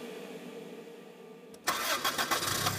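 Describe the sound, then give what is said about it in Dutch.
A taxi engine cranks and catches at about one and a half seconds, then settles into a steady idle with a few uneven surges. Before it starts, only a low hum. No one speaks. “De taxi brengt ons naar de bushalte, waar we de eerste bus nemen tot aan de Poolse grens.”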